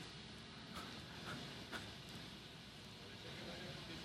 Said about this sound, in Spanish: Un aire acondicionado. Hay problema con el aire acondicionado.